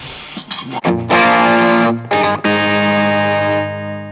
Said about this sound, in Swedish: Jag Tyckte om när den var så här, eh, också eh, när man verkligen så här lät den precis spricka upp som lite grus på toppen pedal.